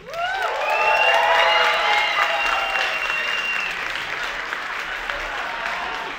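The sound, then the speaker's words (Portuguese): An audience applauds steadily for about six seconds to welcome the cast back, a dense wash of clapping joined early on by high whistles and cheers that fade as the clapping continues. “Senhoras e senhores, eu quero que vocês recebam com uma salva de palmas todo o nosso elenco de volta.”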